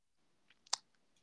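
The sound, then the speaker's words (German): A single sharp, crisp click from a computer mouse as someone clicks through on a computer stands out near the middle, with a few fainter ticks around it against a quiet, near-silent background. “Ich, ich klicke mich hier gerade durch”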